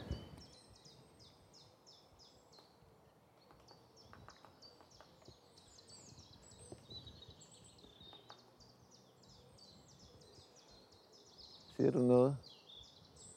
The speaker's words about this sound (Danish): Nå, det er en spætmejse. En spætmejse, det er sådan en rigtig hyggelig fugl med sådan meget skarpt næb og sådan en sort stribe lige ved hen over øjet. Og så har den sådan en fin sang, men den sang ikke lige nu.